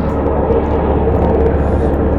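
military helicopter flying overhead

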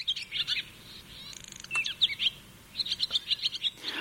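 barn swallow song

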